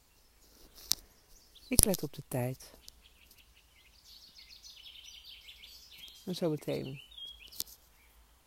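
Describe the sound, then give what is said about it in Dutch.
Birds sing softly in the background, a steady run of high twittering chirps that continues through quiet pauses while a calm voice speaks briefly at the start and again near the end. “Je hoort de vogels op de achtergrond.”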